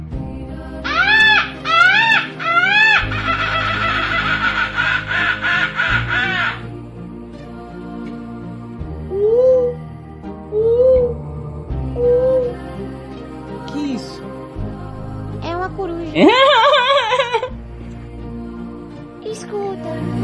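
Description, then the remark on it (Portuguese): A voice imitates bird calls with a series of loud, squawking caws in short bursts, separated by pauses and a few softer rising chirps, over a steady low background hum. “Canta o barulho dos pássaros.”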